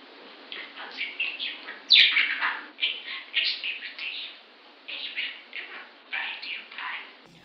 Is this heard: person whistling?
no